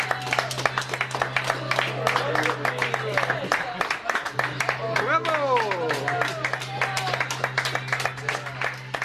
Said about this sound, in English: cheering on the bridge drowns out the high pitched sound of the onboard GPS, which strikes 90 degrees north exactly.